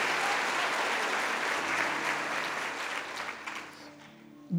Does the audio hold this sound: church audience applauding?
yes